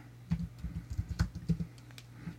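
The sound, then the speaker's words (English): Rapid, uneven keystrokes clatter on a computer keyboard as someone looks up a date on Amazon, a quick burst of clicks and taps with no one speaking. “Everybody loves to hear typing on a podcast.”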